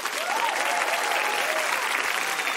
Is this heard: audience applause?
yes